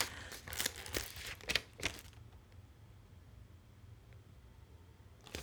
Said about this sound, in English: I was going through the Bible and something struck me. You can see I'm opening my books.